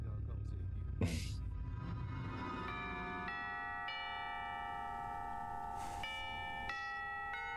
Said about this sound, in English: Ding dong another sound effect that was just had to find the, the old four tone doorbell. Oh yeah, that was also the uh, the chime for when my classes changed in high school.